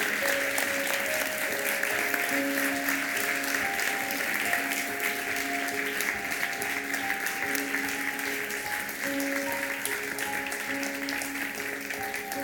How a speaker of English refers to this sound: Come on, give them a clap.